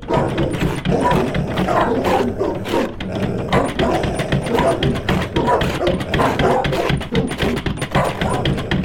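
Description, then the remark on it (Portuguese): Several agitated dogs bark and snarl at a door in a frenzy, loud, their overlapping barks forming a continuous, chaotic din that never lets up for the whole stretch. “Os cachorros estavam ainda mais agitados.”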